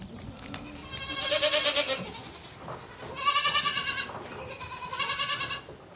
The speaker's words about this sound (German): Ziegen, diese ewig neugierigen Tiere, lassen sich ein solches Abenteuer nicht entgehen.